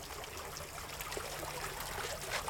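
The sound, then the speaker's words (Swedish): Water trickles and burbles steadily over a large diabase stone fountain, a jet rising in the middle and water flowing out over the top, the stone carved so rings form; a soft continuous babble with small splashes, and no voices. “Det du hör porla i bakgrunden är en, en stor sten i diabas när strålen kommer upp i mitten och vattnet flyter ut över ovansidan så är den huggen på ett sätt som gör att det blir ringar som då ska vara hjärtslagen.”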